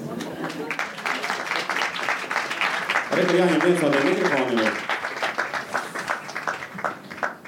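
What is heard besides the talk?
audience applause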